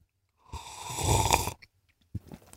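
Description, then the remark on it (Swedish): A drawn-out slurp of about a second as someone sips coffee from a glass, followed after a short pause by a softer second sip. “Slut på kontot dricker kaffe.”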